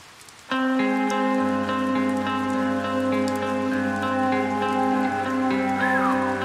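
A steady patter of rain, a rain sound effect designed by a band for a track on their album, runs underneath sustained musical chords, with a low bass tone entering shortly after; a continuous, even texture with no voices.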